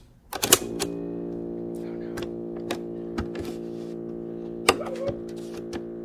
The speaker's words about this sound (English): And screwed the new cassette back together. It looked functional. Yeah. I don't see why it shouldn't play at this point. And so we popped it into my tape player.